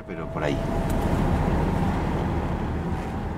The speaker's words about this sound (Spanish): Mientras nos acercábamos en coche a la estación, el nieto y el historiador me explicaron por qué.